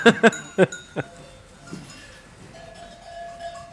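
Sheep bells (sonnailles) worn by ewes clank, four sharp metallic strikes in the first second, then softer, lingering bell tones ring faintly as the flock of 130 ewes, 15 to 20 of them wearing bells, moves on.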